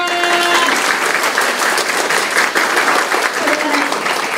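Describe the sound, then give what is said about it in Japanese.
Loud, sustained applause from an audience as three teachers from Hakata and Hiroshima are introduced. Many hands clap in a dense, steady crackle that fills the whole clip, with a brief tonal hum at the start. “名前を紹介します先生ね3名です博多広島拍手”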